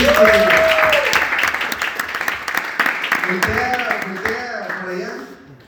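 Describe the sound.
A crowd breaks into applause, a dense patter of many hands clapping that fades out over several seconds, with cheerful voices and a few exclamations rising over the clapping.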